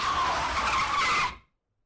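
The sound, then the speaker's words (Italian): A car screeches off with loud squealing tires over a roaring engine, one continuous burst lasting just over a second before cutting to silence. “Poi, come nei film, sfrecceranno nelle loro auto verso il tramonto.”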